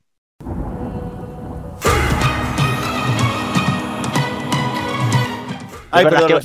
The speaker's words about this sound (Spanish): Y este gran aplauso. Eh, aplausos, aplausos aquí no. Ay, perdón.